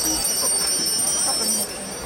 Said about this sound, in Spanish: Las campanillas de los vendedores de esquimos y sorbetes estaban sonando.